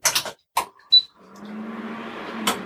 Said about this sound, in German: so, geht auch schon der Herd an und wir können es einfach mal starten.